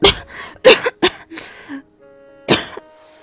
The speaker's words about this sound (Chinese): 白慕薇被他的烟熏得咳嗽。